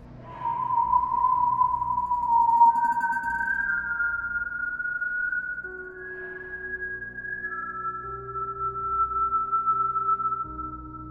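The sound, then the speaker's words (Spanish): A steady, unbroken whistling tone that holds for the full length, its pitch stepping between a few sustained levels and sometimes layering two tones, over a low rumbling hum. “El silbido no se detiene.”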